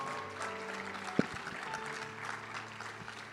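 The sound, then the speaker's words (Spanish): An audience gives the Lord a loud round of applause, a dense, crackling wash of hands that holds at an even level throughout, broken once by a sharp thump partway through. Nobody speaks. “Vamos, denle un fuerte aplauso al Señor.”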